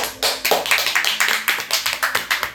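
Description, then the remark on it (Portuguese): A short burst of applause, several hands clapping in quick, slightly uneven succession, steady and fairly loud for a couple of seconds. “Vamos aplaudir!”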